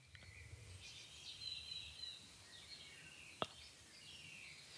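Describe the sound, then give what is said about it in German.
Faint bird chirps and short calls drift over a steady outdoor hiss, with one sharp click partway through; no one speaks. “Und zwar äh, höre ich das auch die Vögels, die sind hier an, an, ja. an Vögeln.”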